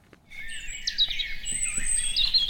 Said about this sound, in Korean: 아, 예쁜 새소리군요. 네. 새처럼 이렇게 이쁜 소리도 없죠, 주위에. 근데 우리가 새를, 새가 운다 이렇게 표현하는데 사실 새가 웃는다 해도 좋을 것 같은데, 그죠?